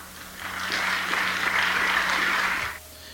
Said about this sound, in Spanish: Ojo, no estamos aplaudiendo nosotros aquí en cabina.